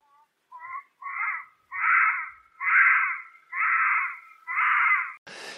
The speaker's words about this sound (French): Ça ressemble à quoi, grosso modo ça, ah, ça ressemble à un pleur de bébé. Ah, d'où le bouche baby.